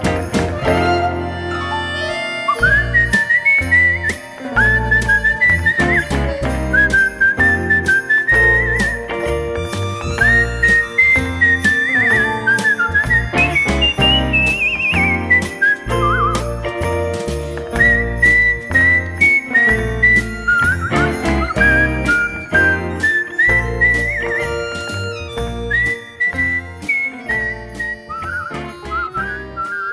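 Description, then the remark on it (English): A person whistles a bright, wandering melody in a Christmas song over a full musical backing with steady jingling bells, the whistle loud and up front throughout with no talking. “Nice whistling.”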